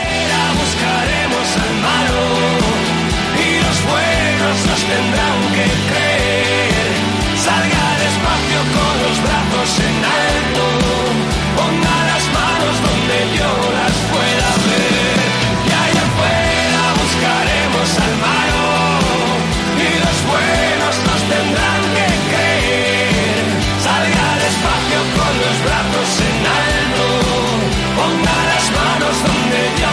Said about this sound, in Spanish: Escuchamos un poco de música y enseguida estamos con todos vosotros.